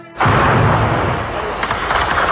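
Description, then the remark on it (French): A sudden, loud artillery blast erupts and rolls into a sustained, heavy rumble of shelling that fills the space without letting up, powerful throughout: cannon fire bombarding Sarajevo during the war in 1992. “Les danses, les chants, le bruit des guitares pour résister au rugissement des canons.”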